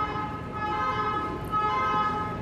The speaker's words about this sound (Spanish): Está la pinche alarma esta. Cabe mencionar que estamos en el Raval.